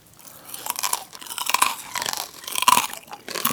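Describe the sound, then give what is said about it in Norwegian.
Loud crunching as someone bites into crispy pork crackling in a kitchen, followed by a steady run of brittle, crackly chewing with no talking. “men, det her, hvis det er gjort riktig, skal jo skape en lyd mm. som er vanskelig å misforstå.”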